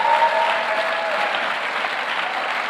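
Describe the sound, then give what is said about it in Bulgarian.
An audience applauds steadily for a preacher during a sermon, a dense wash of many hands clapping at an even, sustained loudness with no voices standing out. “О, хайде, дай му едно дарение на копляскане, като че вярваш това, което проповядва.”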